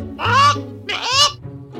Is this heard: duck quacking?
yes